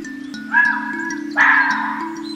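Two hoarse, raspy barks from a wild dog, about a second apart, fairly loud, over a steady low droning hum in the background.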